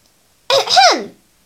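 A single throat clearing, a short voiced "ahem" whose pitch rises and then drops, heard on its own against silence and fairly loud.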